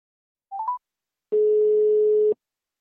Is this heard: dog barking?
no